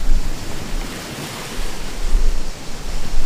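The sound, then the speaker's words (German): Steady ocean surf rushes and hisses, swelling and easing as waves break on the shore, with a low wind-like rumble underneath and no voices. “schaut gerade so aufs Meer, aufs Wasser, so kurz so, okay, wow.”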